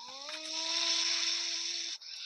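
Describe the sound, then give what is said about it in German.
A voice imitates a loud PlayStation 4 being switched on, producing a steady, whirring hum mixed with a strong airy hiss for about two seconds before it cuts off, like a straining console fan. “du machst ja den hier PlayStation 4 an. Sie macht so.”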